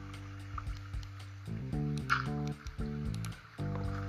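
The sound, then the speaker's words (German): Water in a video game cave sloshes and gurgles with soft dripping splashes, washing away a torch, set against sustained low tonal background music that swells and drops in a few steps; no one speaks. “Nein, hier wurde eine Fackel weggeschwemmt. Das war jetzt nicht das Ziel. Äh, wegen dieser blöden Wasserhöhle hier.”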